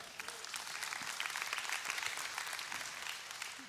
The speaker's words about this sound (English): Appreciate people clapping that I'm leaving. That really means a lot.